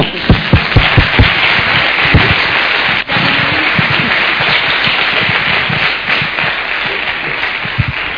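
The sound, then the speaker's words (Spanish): An audience bursts into dense, sustained applause, many hands clapping in a loud, steady wash for several seconds with sharp individual claps standing out, and no one speaking over it. “Un aplauso.”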